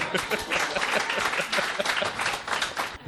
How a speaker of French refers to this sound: Et du coup, il rame, il rame, on peut l'applaudir de ouf.